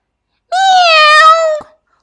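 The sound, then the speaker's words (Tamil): A single drawn-out cat meow, steady in pitch and lasting about a second, loud, with silence before and after. “பூனை தாவி நேராக துணிக்கொடியின் மேல் விழுந்தது”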